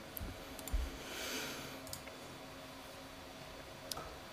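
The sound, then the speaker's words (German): A few sharp, quiet mouse clicks, spaced irregularly over a few seconds, with faint background hiss and no talking. “klicken wir uns noch ein bisschen weiter.”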